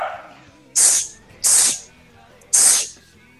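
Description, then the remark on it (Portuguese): Someone imitates with their mouth the hissing gas release of three-dimensional maneuver equipment: three loud, breathy, high-pitched bursts in an uneven rhythm, each cutting off sharply, with quiet gaps between them. “Tá, é o barulho do. Ah, tá, do gás, puta.”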